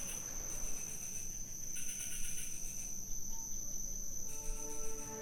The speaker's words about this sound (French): Nous tombons dans un profond sommeil à l'instant même où nos têtes touchent l'oreiller, dans un bruit de grillons et d'étranges oiseaux de nuit qui me rappellent que je suis à l'autre bout du monde.